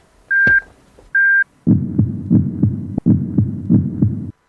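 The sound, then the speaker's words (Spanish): Two short electronic beeps lead into a fast, steady heartbeat, a racing pulse as of a patient in intensive care, thumping loudly in regular rhythm, with a brief break midway before the pounding resumes. No one speaks. “La temperatura hasta que arde, el pulso acelerado, la presión arterial disparada y la frecuencia cardíaca rápida y superficial.”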